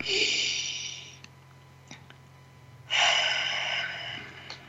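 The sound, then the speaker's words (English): Two long, airy breaths, each a steady rushing inhale lasting over a second and drawn deep into the belly, separated by a quiet pause with faint clicks and a low background hum. “Close your eyes, you're absolutely safe, and take a deep breath. This is kind of breath that goes right into your belly, it fills it up.”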